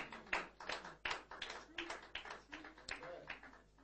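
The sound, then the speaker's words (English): Steady rhythmic hand clapping, roughly three sharp claps per second, at a moderate and even level for the whole stretch, like a group clapping along together. “Your clapping will encourage you.”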